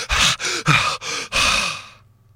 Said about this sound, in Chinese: 拖着自个儿往上走，哎，片刻呢，已经浮出水面。哎，岳云鹤赶紧大口大口的喘息呀